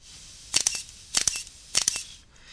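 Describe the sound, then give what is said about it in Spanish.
A camera shutter fires three times at a steady pace as the final step of cleaning a mirror camera's sensor. Each release is a crisp double mechanical click with a bright, metallic top, separated by quiet gaps with no talking. “Entonces, el, último paso que hago es hacer unos cuantos disparos”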